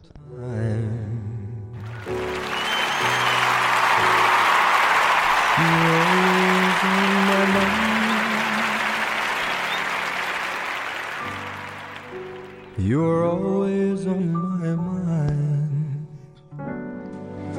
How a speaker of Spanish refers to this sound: Por eso, estos aplausos van para ti.